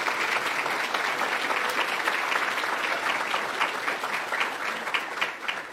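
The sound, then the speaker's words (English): An audience in a council chamber applauds the JPRD East 10U softball team, a dense wash of many hands clapping at a constant loud level, with faint sharper claps poking through the roar. “If you can stand up, everybody just give them a round of applause.”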